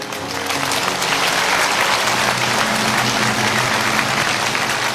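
audience applause

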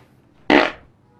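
fart

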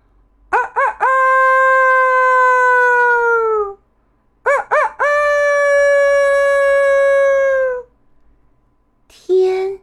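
rooster crowing

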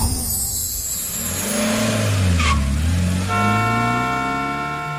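car driving off

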